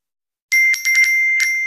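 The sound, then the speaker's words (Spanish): A cluster of bright metallic chimes rings out after a short silence, several quick overlapping dings piling up into a sustained ringing: notification alerts of some 21,000 landlords being told they have received their rent payments that day. “¿Oyes eso? Son nuestros 21.000 propietarios recibiendo el aviso de que hoy ya han cobrado sus rentas.”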